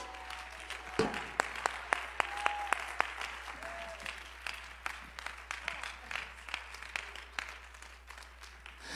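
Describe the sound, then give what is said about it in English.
An audience at a church worship service claps steadily, many hands overlapping into a dense, continuous patter of applause, with a few sharper individual claps standing out early on and faint tones in the background. “Change comes when you prophesy with us, when you praise with us, when you worship with us, when you clap with us.”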